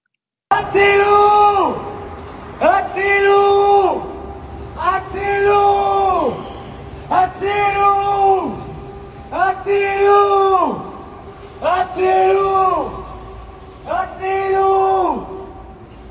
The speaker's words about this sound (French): Et il y avait un homme euh, qui hurlait dans un mégaphone euh, euh, sauvez-nous, sauvez-nous devant les, les, les grilles euh, du QG de salle parce qu'il y avait une réunion de l'armée dedans.